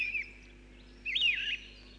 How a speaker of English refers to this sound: Now, let's have a listen. What can you hear? Hmm? If it's spring or summer, you're bound to hear the birds singing.